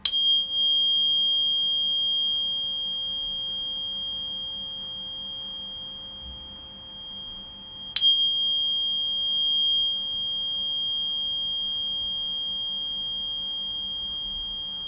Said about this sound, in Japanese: これは 528Hz なんですけれどもこの音を含む音楽が示す効果は、えー、よく言われていますモーツァルトの音楽にも含まれています、えー、特に心身を安らぎモードに導く副交感神経を効果的に刺激する周波数と言われています